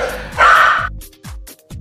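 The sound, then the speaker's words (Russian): A dog barks, one loud, rough bark followed by a few shorter, quieter yips in quick succession. “Теперь там работает все. Включая собак, видимо. Включая всех двух собак.”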